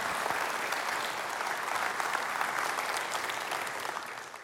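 Steady, dense applause from a large audience welcoming a speaker, a continuous wash of clapping hands that holds strong throughout and begins to taper slightly at the very end.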